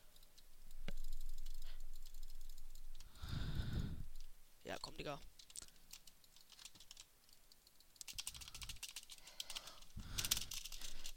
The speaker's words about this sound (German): Übrigens, vielleicht hört ihr diesen Tastatur, diesen Leertastensound.